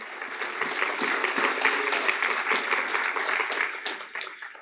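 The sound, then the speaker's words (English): A church audience applauds together to thank those who led the church's missions month, a sustained wash of clapping that holds steady for several seconds before tapering off slightly at the end, with no talking over it. “And so, uh, if they're here, even if they're not here, let's give them a round of applause for bringing us through this missions month.”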